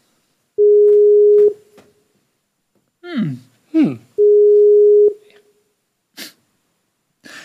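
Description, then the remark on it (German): A repeated attempt to call someone: the phone line rings out with two long, steady electronic ringback tones, about a second each, while a person murmurs briefly in the pause between them and nobody picks up. “Erstmal meckerst du ihn an, dass er nicht rangeht.”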